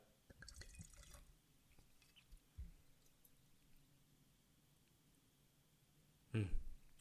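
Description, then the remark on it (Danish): Rosé wine trickles softly into a glass, a quiet, uneven pour with faint drips, ending in a brief louder splash near the end. No one speaks. “Jeg hælder lige lidt mere op her.”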